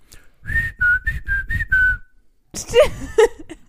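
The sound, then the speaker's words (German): A mother whistles a particular short melody of about six clear notes to call her children inside, bright and fairly loud, followed by a burst of talking and laughter. “nee, aber Mama hat uns mit so einer bestimmten Melodie reingepfiffen.”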